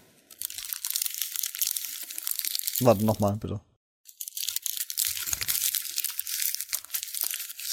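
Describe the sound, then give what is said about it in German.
A paper receipt is crumpled up, a steady crisp crinkling that runs for a few seconds, pauses while someone briefly speaks, then starts again and continues to the end. “Okay, gut, das war ein Kassenzettel.”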